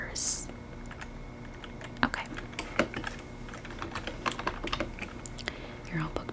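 Soft keyboard typing during a resort check-in booking, with irregular bursts of light key clicks over a quiet background, with a faint hum and no clear talking.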